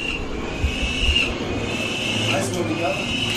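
Thin, drawn-out bird of prey calls at Lisbon airport rise and fade over a steady background hum, with a few brief, faint cries mixed into the noise near the end.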